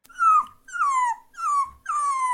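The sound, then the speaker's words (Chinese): A small dog, carried by a woman in a bag with its head poking out of the zipper gap, whimpers four times in a row while people line up at a quarantine hotel. Each whine is high-pitched and slides downward, fairly loud and evenly spaced with short gaps between them, with no one talking. “我就看周围都是有什么人嘛，有一个阿姨带了一只狗过来，她的那个包包有个拉链缝嘛，那个狗头就是摆在那里。”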